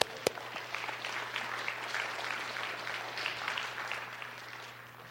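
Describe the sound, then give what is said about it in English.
An audience applauds that 2.5 million people gave their hearts to Christ, with steady, dense clapping that holds for several seconds, then slowly thins and fades toward the end. A faint low hum sits underneath, and no one speaks. “In fact, we, we applaud that 2.5 million people gave their hearts to Christ.”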